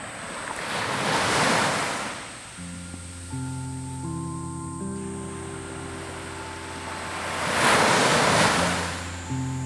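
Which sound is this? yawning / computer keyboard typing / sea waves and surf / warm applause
sea waves and surf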